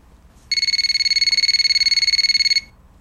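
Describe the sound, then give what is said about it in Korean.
A phone rings as a call is placed late at night, a rapid electronic trill, a bright high-pitched warbling tone pulsing quickly and steadily for about two seconds, then stopping abruptly. No one speaks. “전 결국 고민 끝에 결론을 내리고 그에게 전화를 걸었죠.”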